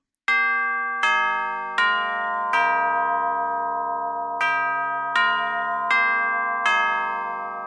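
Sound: school bell ringing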